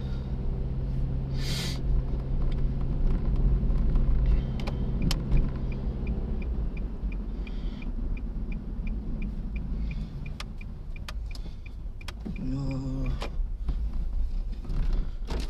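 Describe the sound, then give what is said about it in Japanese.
A car engine rumbles as the vehicle rolls slowly into a parking lot on a cold day and comes to a near stop, with faint clicks, a brief whine and interior movement noises, no talking. “ようやく駐車場に入りました駐車場に入ったんで”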